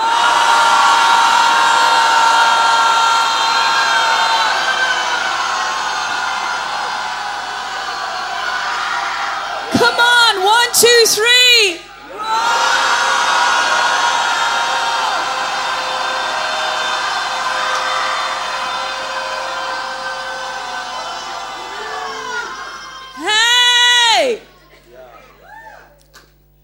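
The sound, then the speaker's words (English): A large crowd roars together on a count of three, imitating a lion and roaring at fear, in a loud, sustained group bellow that swells for several seconds, breaks briefly into whoops and cheers, then roars again before ending in whooping. “Come on, after three, let's roar at fear.”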